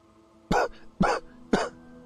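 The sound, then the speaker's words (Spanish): A voice imitates harsh, violent coughing: three loud, forceful bursts spaced about half a second apart, clear, with no talking around them. “Empieza a toser fuertemente.”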